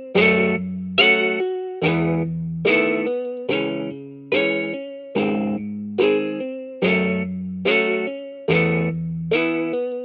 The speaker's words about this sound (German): Das ist ein Omnisphere-Plugin gewesen. Und der hat so eine ganz weirde Art gehabt, eine ganz langsame Art, so aufgebrochen, diesen Akkord zu spielen. Es war eine Art Gitarrensound, aber nicht wirklich ein Gitarrensound.